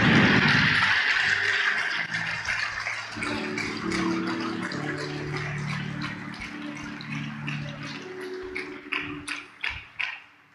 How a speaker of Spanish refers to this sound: Si lo va a aplaudir, hágalo bien para Él.